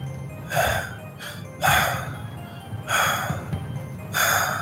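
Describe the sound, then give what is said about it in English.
Someone imitates panting with their voice: four or five breathy, airy huffs at a slow, steady rhythm, moderately loud, with no words spoken. “you hear like almost a panting noise.”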